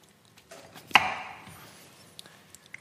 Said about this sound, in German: soll ich schon mal die Paprika weghacken? Oder? Ja, genau.